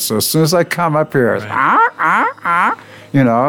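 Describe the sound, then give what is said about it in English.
A man speaks briefly, then imitates with his voice the ravens nesting in a building's eaves that he disturbs: three or four loud, harsh, drawn-out caws in a steady rhythm. “Well, the, the ravens uh, nest up there, so I disturb the ravens.”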